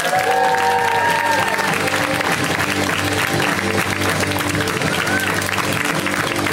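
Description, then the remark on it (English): A crowd applauds steadily for the final comic taking the stage at a comedy show, a dense wash of clapping that stays loud throughout, with a few whoops and cheers rising briefly over it near the start and again toward the end. “Give it up for him.”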